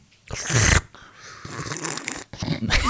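Loud, airy slurping of tea comes in three noisy bursts: a strong one first, then two longer, rougher sips with wet, breathy hiss and no talking.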